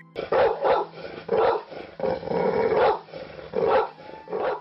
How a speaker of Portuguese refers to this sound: Quando vê, um cachorro começa a latir do nada.